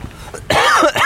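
A man coughs close to the microphone, a sudden harsh burst followed by a second rough cough about half a second later, loud and raspy with no talking.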